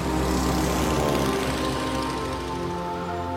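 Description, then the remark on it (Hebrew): A propeller airplane passes directly overhead in the sky, droning loudly. Its steady rumbling engine tone fills the whole moment without fading, continuous, with no voices. “אווירון שעובר בדיוק מעליכם בשמיים.”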